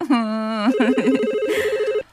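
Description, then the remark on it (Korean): A telephone rings at home with an electronic tone as a father calls: a brief steady buzz gives way to a rapid, warbling trill that repeats evenly for about two seconds, loud and clear with no talking over it. “아빠가 우리 공주님 목소리 듣고 싶어서 또 전화하셨네.”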